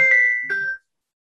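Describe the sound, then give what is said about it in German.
A mobile phone that was not switched off rings briefly during a live talk, a bright electronic two-note chime lasting under a second, clear, then cut off into silence. No one speaks. “Ruft jemand an, weil sie, wenn man das Handy nicht ausmacht.”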